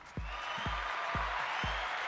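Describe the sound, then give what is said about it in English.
A sound effect of a large crowd applauding and cheering in a dense, steady roar, with heavy low thumps beating underneath about twice a second, like rhythmic stomping. “Students go wild. They love it. The crowd loves it.”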